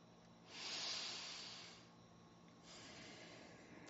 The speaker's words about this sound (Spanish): De nuevo, una respiración profunda y retornamos al lugar donde cada uno se encuentre.